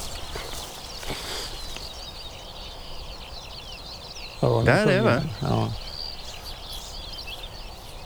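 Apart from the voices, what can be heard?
ortolan bunting singing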